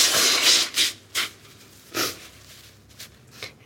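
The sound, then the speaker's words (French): Someone blows their nose into a clean paper napkin: a long, loud, breathy blast, followed by several shorter snorting puffs and papery rustles, with no talking. “Vous auriez pas un mouchoir Oui. Euh, alors, je vais avoir ça. J'ai euh... ah, une serviette en papier et elle est propre.”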